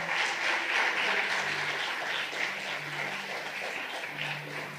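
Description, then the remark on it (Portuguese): A church audience applauds the Lord for the worship team, a dense wash of many hands clapping at an even loudness throughout, with a faint low hum underneath and no speech over it. “E vocês podem aplaudir o Senhor por essa equipe maravilhosa.”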